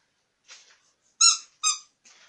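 A squeaky cube-shaped pet toy gives two sharp, high squeaks in quick succession, fairly loud, with faint rustling handling noise just before and after.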